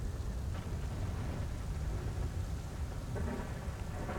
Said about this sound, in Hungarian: Esik az eső.